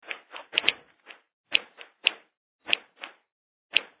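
A string of sharp, dry clicks, illustrating objective tinnitus caused by involuntary contraction or twitching of one of the two tiny middle-ear muscles, repeats at an irregular pace, some close together in pairs, each one brief and crisp with silence between, and no voices.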